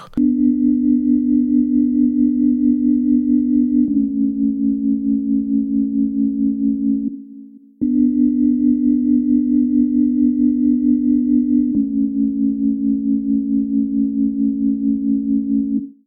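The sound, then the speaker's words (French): A soft, sustained Wurlitzer electric piano pad in a minimalist instrumental holds simple chords alone, shifting between two chords every few seconds in a slow pattern that repeats twice, steady and mellow throughout. “C'est un synthé, et plus précisément un Wurlitzer.”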